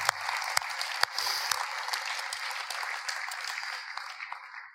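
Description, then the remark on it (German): A crowd applauds steadily for the new members of a barista team, a dense wash of many hands clapping at moderate volume with a few sharper individual claps standing out, tapering off slightly toward the end. “Wir haben einen grossen Applaus allen, die hier eingestiegen sind, neu in das Team hier.”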